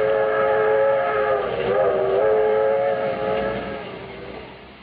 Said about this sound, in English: This is the story of an overnight train trip on the 20th Century Limited from Chicago to New York.